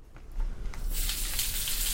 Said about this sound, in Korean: 집에 돌아와서 가장 먼저 한 일은 욕조의 뜨거운 물을 받아 몸을 푹 담근 거였다.